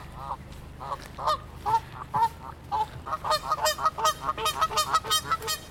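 Geese passing by honk repeatedly, the harsh calls overlapping and growing denser and louder toward the end, with no voices present.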